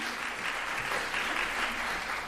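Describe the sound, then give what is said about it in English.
Steady audience applause for a teacher, a dense, even wash of many hands clapping at a consistent loudness with no pauses and no voices on top. “three decades in as a teacher and a te- you know deserves a big round of applause anyway from me.”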